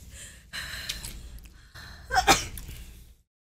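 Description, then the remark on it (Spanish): A single sharp sneeze bursts out after a few seconds of breathy, hissy noise, then everything cuts to silence. “Salud.”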